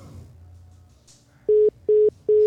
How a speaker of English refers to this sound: Uh oh. Did, did we lose? Him? Did we lose him? Did he hang up? We uh, lost your, him. Your phone, your phone dropped mine. We lost him.